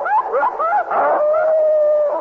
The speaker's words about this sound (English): Did I hear a dog up here? What, what, a dog? Oh, no, no, that, that's me. I've got a cold.